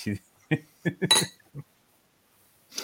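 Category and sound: household object, ice clinking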